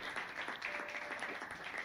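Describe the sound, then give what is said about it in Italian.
A steady burst of crackling applause from a group greeting a couple's kiss, many hands clapping densely together at an even, moderate loudness with no voices. “Andres si decise a baciare Carmen davanti a loro, ricevendo un applauso scoppiettante.”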